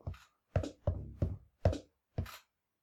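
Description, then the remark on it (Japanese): A low, thick drum machine clap sample struck six times in an uneven rhythm, each hit a loud, sharp burst with a short decay and no voices around it. “うおクラップだね、これ。”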